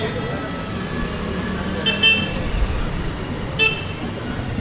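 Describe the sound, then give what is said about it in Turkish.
A steady roar of traffic on a main street in Asia with two-way flow and no traffic rules, with two short car horn toots cutting through around the middle. “Çünkü trafik kuralı denen bir şey yok. Ana caddede çift yön akış var.”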